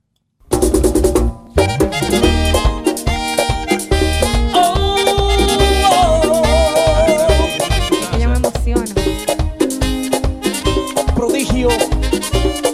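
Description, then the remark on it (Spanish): A loud, full band strikes up after a brief silence, with a bright accordion carrying sustained, reedy melody lines over steady bass and rhythmic backing, like a song's instrumental opening. “el genio creativo del acordeón, el prodigio con su tema”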